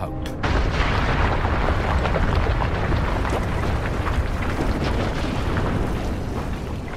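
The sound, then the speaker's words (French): A continuous, heavy roar of churning, rushing force from a glacial outburst flood (jökulhlaup) in Iceland, where volcanic eruption suddenly meets water and ice, sending torrents of water and mudflows; dense and steady at a high level after a sudden start, with rumbling lows and scattered crackling bursts throughout. “C'est un gigantesque choc thermique. Il faut imaginer d'immenses panaches de vapeur qui tout à coup filent vers le ciel.”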